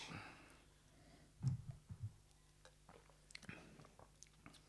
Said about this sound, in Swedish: Vi kanske kan eh, ta en klunk och se om, den, eh, om vi är nöjda.